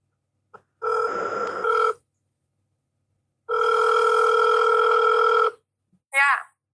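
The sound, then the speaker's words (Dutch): An outgoing phone call, which is being recorded, rings twice through the earpiece: two steady, buzzy ringback tones separated by a pause, followed by a brief rising chirp as the line picks up. “Dus ik heb eh, Kiki gebeld en ik heb het opgenomen.”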